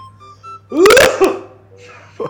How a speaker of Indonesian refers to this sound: aku batuk wah kamu batuk